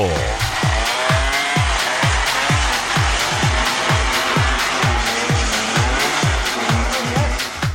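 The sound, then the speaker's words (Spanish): A one-wheeled motor vehicle roars, its engine rising and falling in quick repeated surges over a constant loud rush of tire and road noise. “Bueno amigos, dejémonos de motores con una llanta y de bicicletas con una llanta gordota.”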